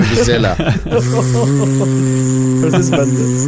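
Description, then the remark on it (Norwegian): A voice imitates a vuvuzela, the horn of the football World Cup in South Africa, with a sustained, steady buzzing drone held for about three seconds, loud and nasal with a strong harmonic hum, ending abruptly. “Masse sinte ah. bier.”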